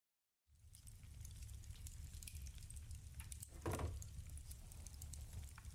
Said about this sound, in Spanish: el crepitar de un fuego, olor a madera, el silencio de la noche, la poca luz de una chimenea que ilumina esta pequeña taberna.